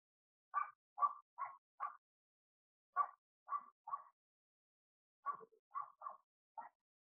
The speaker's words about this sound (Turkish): Şimdi dışarıdan gelen sesleri fark edin. Odanın dışından gelen sesleri. Bir köpek havlaması duyuyorum ben şu an.